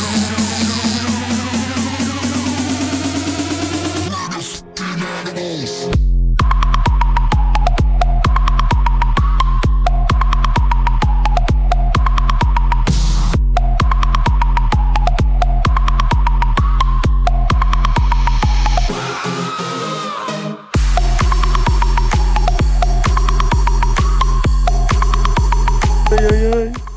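A loud song plays with a steady, driving beat and heavy bass pulses under melodic parts, pausing briefly twice before the rhythm kicks back in. No one speaks over it.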